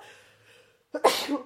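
A single sharp sneeze bursts out after a quiet moment with a faint breathy intake, loud and abrupt with a brief noisy tail.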